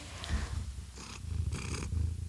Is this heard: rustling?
no